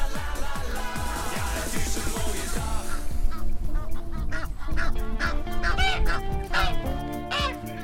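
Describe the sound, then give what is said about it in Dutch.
A noisy flock of geese honks, one goose coming aggressively toward the listeners; harsh nasal calls overlap in a loud, continuous clamor, with repeated sharp honks rising above the chatter throughout. “Gadverdarrie, ik zie die gans een beetje agressief op ons afkomen.”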